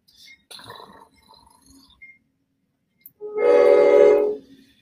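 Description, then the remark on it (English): A train horn blares loudly for over a second with a rich, harmonic tone, preceded by faint rattling and clanking of a passing train. “Hold on, train's got to go by.”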